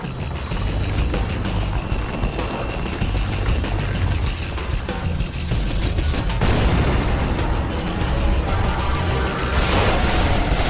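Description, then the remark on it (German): Rapid bursts of gunfire, shots fired at a massive statue come to life that bounce off it, crackle continuously over a dense, rumbling roar, loud the whole way through, with no voices present. “Die Schüsse des Hüters prallten einfach an ihr ab.”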